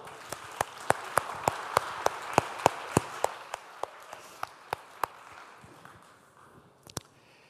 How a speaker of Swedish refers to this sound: Tack lovsångsteamet. Kan ge dem en, varm applåd.